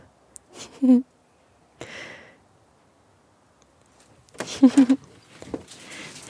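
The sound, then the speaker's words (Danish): A small black pug dog snorts and snuffles: a short burst of wheezy grunts, a pause, then a louder run of quick nasal snorts and heavy breaths. “Og jeg kan allerede høre en hund. En lille mops, tror jeg det er. Sort mops.”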